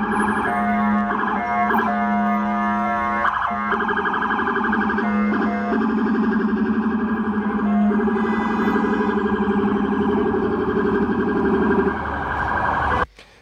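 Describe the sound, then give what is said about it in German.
A loud low-frequency rumbler siren sounds with a deep, throbbing low tone, pitched so low it can be felt as well as heard, under higher wailing harmonics, pulsing steadily for about twelve seconds before cutting off abruptly. No one speaks. “Und zwar hat das, das den, das hat den Vorteil, dass es so tief ist, dass du das nicht nur hörst, sondern dass du das auch spürst.”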